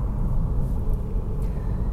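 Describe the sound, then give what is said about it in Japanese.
A steady low rumble of a car engine and road noise while driving, continuous and even throughout with no breaks or voices. “えー、まあ、今日もちょっとね、あの、車の運転中なので、ちょっとお聞き苦しいところもあると思いますが、はい、ちょっと両、あのー、ご理解いただいて、はい。”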